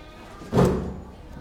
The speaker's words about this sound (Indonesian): Jadi gue duduk ya. Di sini sini sini. Oke, oke. Tarik tarik kursi itu.